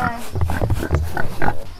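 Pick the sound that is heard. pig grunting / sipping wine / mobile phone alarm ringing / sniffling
pig grunting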